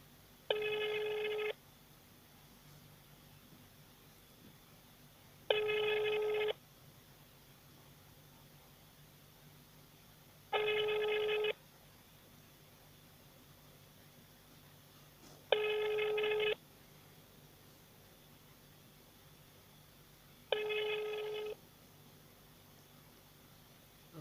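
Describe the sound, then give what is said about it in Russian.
A telephone ringback tone from a call to a consumer-protection agency office in Biysk, Russia, repeats five times, each burst about a second long with roughly four seconds of quiet hiss between, steady and unanswered, with no voices. “Российские они вообще что ли не отвечают?”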